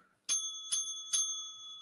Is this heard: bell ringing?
yes